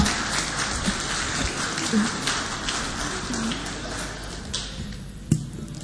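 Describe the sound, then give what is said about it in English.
A crowd claps steadily, a dense wash of many hands pattering together like rain, holding at an even level for several seconds with a few sharper claps standing out near the end. “what are your hands doing? Clap. Can't you clap?”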